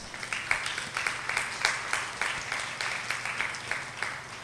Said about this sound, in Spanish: ¿Alguien le puede dar un aplauso al Rey de Reyes?